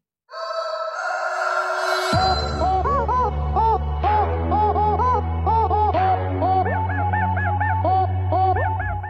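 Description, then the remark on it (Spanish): An autotuned rooster crows in a loud, melodic string of pitched calls, soon joined by a thumping bass beat that carries the repeated crows to the end, with no talking. “Ahí se encuentra con nosotros también el vale, el gallo con autotune.”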